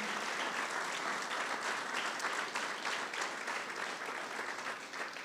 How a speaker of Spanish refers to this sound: un aplauso a todas las mamás que han sembrado en sus hijos. Gracias.